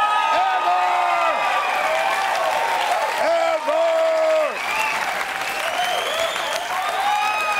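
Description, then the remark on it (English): A studio audience applauds ironically, loudly and steadily for several seconds, a dense wash of clapping with a few whoops and cheering shouts rising over it. “But then, by the way, I just want to point out to the audience at home, they are applauding ironically.”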